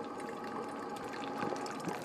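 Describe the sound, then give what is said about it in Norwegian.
A coffee maker brews steadily, a continuous hiss and hum with faint bubbling and gurgling spurts rising through it, no voices present. “Kaffetrakter.”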